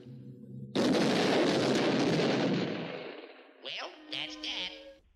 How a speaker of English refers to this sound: So that was exploding uh, ice cream bars that were being uh, uh handed out to unsuspecting uh, Japanese.